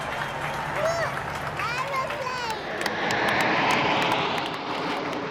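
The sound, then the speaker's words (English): A large outdoor crowd outside Buckingham Palace roars and cheers as the Queen takes her place on the balcony during an RAF celebration, with scattered shouts and whistles rising over a dense wash of noise that swells louder in the second half. “The Queen taking her place there, and a huge roar, a huge cheer from the crowd.”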